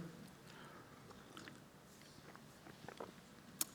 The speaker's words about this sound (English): I'm going to take a quick sip here.